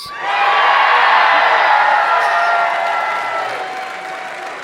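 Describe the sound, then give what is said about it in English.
A large live crowd at the Keswick Theater in Glenside, Pennsylvania, just north of Philadelphia, erupts in loud, sustained cheering and applause, with whoops rising over a dense wash of clapping that holds steady before easing slightly toward the end. “You know how to make noise in Philadelphia.”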